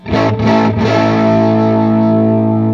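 sound effect, distorted electric guitar

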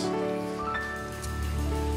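crowd, audience applause

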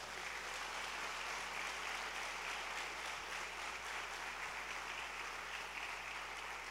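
crowd, audience applauding

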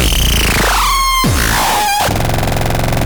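synthesizer sound

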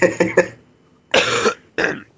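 human body sound, coughing

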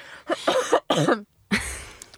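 human body sound, coughing

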